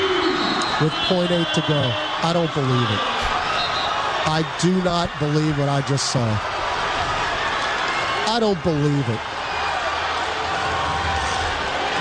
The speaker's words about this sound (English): Nice crowd pop.